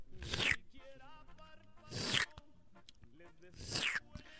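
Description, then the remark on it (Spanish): Three loud, airy slurps of menudo soup broth, evenly spaced about every two seconds, with a faint voice or humming in between. “Y a la sopita que se oiga.”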